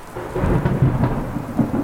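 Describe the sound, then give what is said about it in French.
A thunderstorm at sea during a ten-day boat crossing to Martinique, with heavy rain pouring steadily and deep thunder rumbling low and continuous throughout, loud, with no voices. “Dix jours de traversée, une grosse tempête.”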